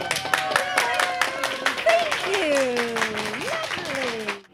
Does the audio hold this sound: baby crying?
no